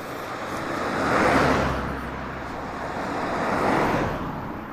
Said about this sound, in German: Oh, hier kommen zwei Autos. Moment, hier wird es gerade interessant.